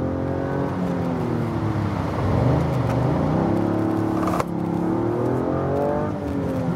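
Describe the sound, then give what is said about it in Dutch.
A Toyota GR Yaris engine revs hard and accelerates, its pitch climbing and dropping through gear changes, with a short break in the tone midway before it pulls again. Loud and steady, no talking. “ja, de GR Yaris is dan ook wel echt een auto waarin je lekker aan de bak kunt.”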